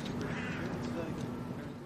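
Birds call in a hotel garden in the center of Jerusalem, with harsh crow-like caws over a steady background hum and murmur, fairly quiet, lasting about two seconds.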